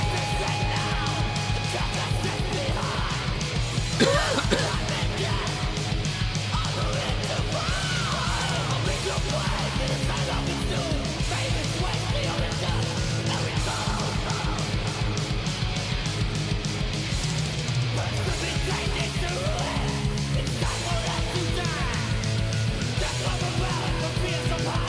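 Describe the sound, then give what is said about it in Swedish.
Loud, dense 80s speed thrash metal by a German band plays from a cassette throughout, with distorted guitars, pounding drums with a big-sounding snare, and shouted vocals at a steady, relentless level. “Jävlar vad de klockar allting härligt med 80-tals speed thrash.”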